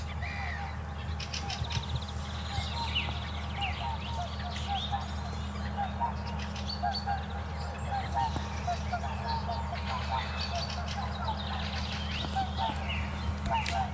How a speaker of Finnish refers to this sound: Jostain kauempaa joutsenet lähestyy.